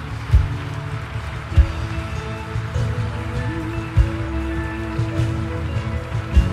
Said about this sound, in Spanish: ¿Por qué no le das un fuerte aplauso a cada uno de ellos?